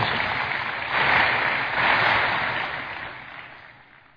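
A crowd claps together in a dense, steady wash of applause that swells twice early on, then gradually fades out over the last couple of seconds, with no voices heard.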